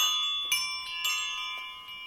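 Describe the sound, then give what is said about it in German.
Metallic temple bells wind chimes ring out with bright, sustained tones, new strikes arriving irregularly about every half second and overlapping as earlier notes fade. Fairly quiet, with no voices. “das sind, die nennen sich Temple Bells. Ich liebe Klangspiele, Windspiele, das war mein PC.”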